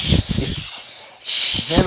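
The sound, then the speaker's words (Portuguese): A woman's voice, playing a Klingon woman, imitates a snake, producing long breathy hisses mixed with low throaty growling and purring sounds, fairly loud, in a short continuous burst. “Eles estão rosnando, eles estão ronronando.”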